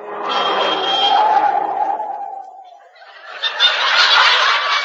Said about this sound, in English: Willie, get out of the road. A car's coming.